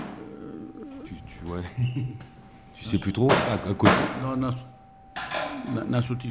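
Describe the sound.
A coffee machine hisses and whirs in a loud burst of a second or so, with faint clinks, as people talk and laugh over it and a thin steady tone hums throughout.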